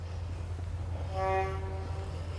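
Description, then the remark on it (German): A ship's horn on a canal gives one short toot, steady and tonal, over a constant low engine-like rumble as two or three ships pass; no one speaks. “Wenn wir es gerade ein bisschen tuten hören, ist, äh, wir sind gerade wieder über den Kanal gegangen.”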